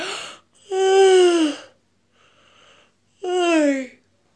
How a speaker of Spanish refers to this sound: Qué te hace bostezar